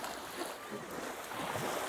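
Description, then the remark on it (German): Steady, broad rushing of sea waves washing onto the shore, a continuous wash of surf with gentle swells in loudness and some wind noise, no voices. “Wollen wir noch mal kurz zum Meer? Ja, sicherlich. Gehen wir zum Meer.”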